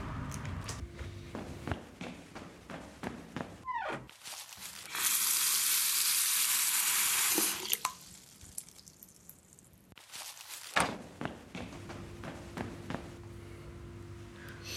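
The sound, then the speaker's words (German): A shower runs with a loud, steady hiss of spraying water for a few seconds, then cuts off, framed by footsteps, clunks and shuffling movements. No one speaks. “Ja, ich war gerade duschen schnell einmal.”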